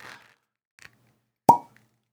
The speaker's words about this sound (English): There you go. That's the sound of uh, the, the cork coming out of the bottle.